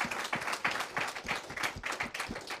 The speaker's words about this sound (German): Ich äh, heiße Sie sehr herzlich willkommen und liebes Publikum, herzlichen Applaus für, dafür, dass Sie sich Zeit genommen haben.